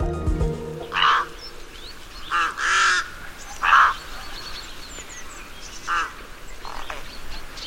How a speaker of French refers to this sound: Ce que vous entendez, ce sont des cris, des bavardages de corbeaux freux.